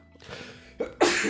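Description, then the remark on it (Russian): A breathy intake of air builds for a moment before an abrupt, loud sneeze bursts out, with a short catch just before the main explosive blast. “Будь здоров.”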